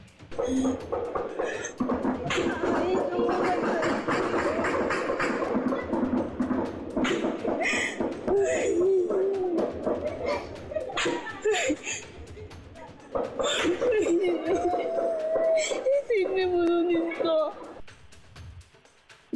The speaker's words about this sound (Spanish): Informarte que lo que acabamos de escuchar es el llanto y el lamento de un habitante del municipio de Chicomucelo que dentro de su hogar escuchó el tiroteo entre dos grupos del crimen